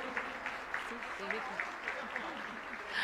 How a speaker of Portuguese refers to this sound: Aplauda o Senhor.